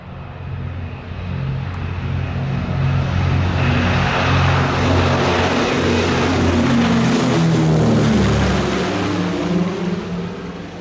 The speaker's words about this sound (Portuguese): continuamos a olhar para o mar e para a passagem dos aviões alemães que patrulhavam a nossa costa para atacar navios aliados.